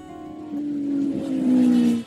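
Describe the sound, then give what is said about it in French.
A motorcycle engine drones steadily while riding small country roads to Provins in magnificent weather, its pitch climbing slightly as it speeds up, with broad wind and road noise building before the sound cuts off. “Bon allez, j'ai ma moto qui me réclame. Je m'équipe et je vous dis à tout à l'heure à Provins.”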